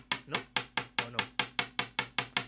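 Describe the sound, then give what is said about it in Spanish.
A two-pound coin clinks against something in a quick, steady rhythm, about eleven sharp metallic taps in a row, fairly loud, with no one talking. “Perdona, estaba haciendo que mi moneda te hiciera bullying.”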